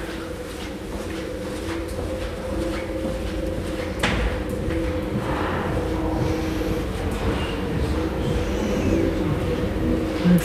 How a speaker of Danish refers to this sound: Vi skal have op her min elevatoren. Har du lagt mærke til den lyd? Nej. Som elevatoren siger? Nej. Prøv at høre. Det er som om, det hyler.